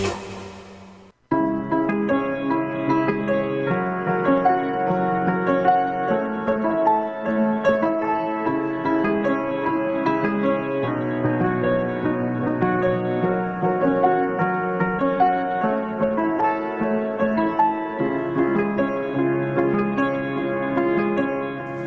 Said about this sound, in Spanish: con este temón.